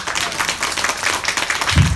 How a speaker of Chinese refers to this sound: 是不是要给他一个掌声？